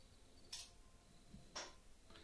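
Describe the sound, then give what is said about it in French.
Faint crickets from an ambience app chirp in short, high bursts roughly once a second, sounding thin over a quiet background with no one talking. “Je rajoute des grillons. Ah, on entend les grillons.”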